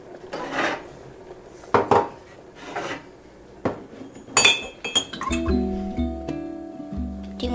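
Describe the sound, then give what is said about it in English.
A cup clinks and knocks several times against other dishes, sharp and bright, then hot water pours into it with a steady stream whose tone shifts as the cup fills. “Okay, go get me a cup. Why? I need to pour the hot water.”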